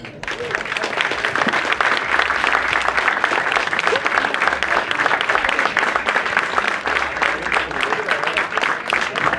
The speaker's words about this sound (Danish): jeg er faktisk glad for, at du får så store klapsalver på den her.